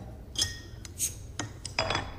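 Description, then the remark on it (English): Beer glasses clink together several times in a toast, bright ringing taps arriving in an irregular cluster, fairly crisp, with no talking. “Well, I'm having a drink. I'm having a drink.”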